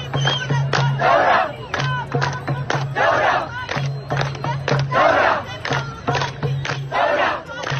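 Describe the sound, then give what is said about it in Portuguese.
A large crowd at a protest in Sudan chants in loud, rhythmic unison, answering each verse of a poem sung by a young woman standing on a car with the Arabic word for revolution, a steady call-and-response pattern, dense with a sustained roar underneath. “A cada verso do poema cantado por Allah, a multidão responde com a palavra Torá, que quer dizer revolução em árabe”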